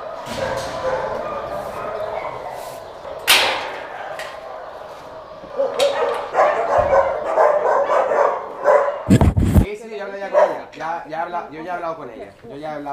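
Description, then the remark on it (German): Many dogs in shelter kennel enclosures, mostly smaller Podencos along with other dogs, bark and yip in a dense, overlapping chorus during morning cleaning of the enclosures, loud, with sharp barks standing out and whimpering in places; a person talks partway through. “Sind jetzt in den Gehegen, wo die kleineren Hunde sind und vorwiegend Podenkos, aber auch ganz andere Hunde.”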